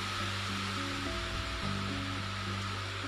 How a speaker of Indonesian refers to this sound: Oh iya, di luar sana masih hujan.